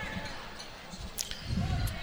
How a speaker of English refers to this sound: acting point guard for the Reese Rockets, dribbles to the right wing, retreats back out.